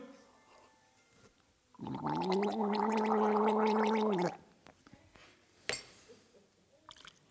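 A person gargles salt water, cold water with a tablespoon of salt stirred in, for about two and a half seconds, a steady bubbling throaty rattle, followed by a few small clinks and quiet handling noises.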